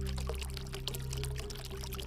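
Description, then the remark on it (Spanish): Water runs and splashes steadily from fountains at the Alhambra, a continuous bubbling flow, even in loudness, with a low steady hum underneath and no voices. “Cuando entras a la Alhambra, siempre estás sintiendo el olor de las flores y el sonido del agua correr.”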